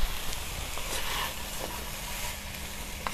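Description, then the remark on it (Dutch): Food sizzles steadily in a frying pan, a continuous crackling hiss with small pops scattered throughout, and no one speaking. “Eh, ja, ik hoor hem al lekker gaan.”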